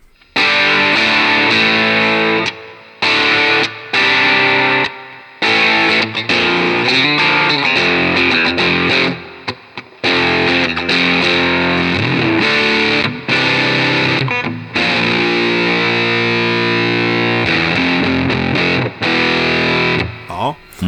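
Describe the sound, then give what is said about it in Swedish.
A thick, heavily saturated electric guitar rings out loud, playing sustained distorted chords broken by several short pauses, with no other sounds alongside it. “till det här ganska feta, mättade”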